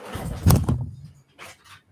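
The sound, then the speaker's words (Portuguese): A door is opened with a short thud and a scraping rattle, followed by a few softer brushing, shuffling sounds as it settles. “Inclusive, eu vou preparar minha medicina aqui, que é abrir a porta que tá um calor”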